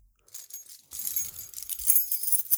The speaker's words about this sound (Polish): moim zdaniem każde klucze brzmią inaczej, ale zawsze ten sam pęk kluczy brzmi tak samo. Czyli dla ciebie to. No. I to zawsze brzmi tak samo? Tak, ale nawet nie w kontekście rzucania, tylko w, wiesz, wyciągasz klucze z kieszeni no. i otwierasz drzwi.